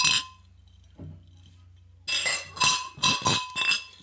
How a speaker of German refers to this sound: Das müssen wir aber auch anstoßen jetzt hier.